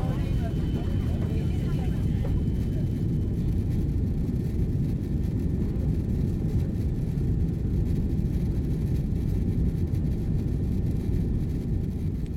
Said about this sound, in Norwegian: Ja, nå sitter vi bakerst i flyet her på vei til Paris.